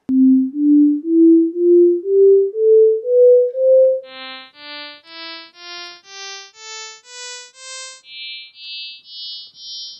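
A rising sequence of steady synthetic tones: first pure low notes stepping upward, then buzzy tones of high harmonics only, from the ninth upward, with the fundamental and first nine harmonics removed. They continue the same climbing pitch pattern, evenly spaced and moderately loud, demonstrating that pitch is perceived without the fundamental.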